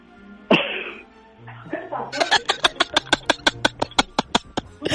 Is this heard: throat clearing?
yes